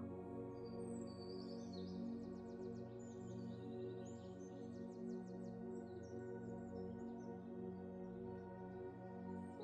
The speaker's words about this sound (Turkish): Kuş cıvıltıları size huzur veriyor.